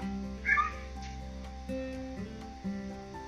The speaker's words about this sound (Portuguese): Peraí que meu gato miou.